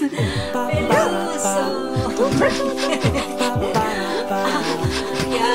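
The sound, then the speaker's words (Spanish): A small pet dog yaps and yips in quick, repeated bursts, loud, with sharp high-pitched barks recurring every second or so over a continuous, busy tonal background. “Chicos, les presento a mi perrito”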